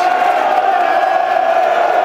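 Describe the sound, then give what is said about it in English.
A stadium crowd at a football match applauds and cheers a good tackle made in their own team's penalty area, a loud, steady roar that holds evenly for about two seconds, with no clear individual voices or breaks. “You can hear the, the applause for that tackle in their own, their own penalty area, listeners.”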